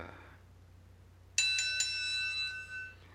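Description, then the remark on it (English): A single bright bell strike rings out suddenly and loudly, its clear metallic tones sustaining and slowly fading over a couple of seconds, with no talking over it. “Well, the bell has rung and it's time for us to bid you adieu.”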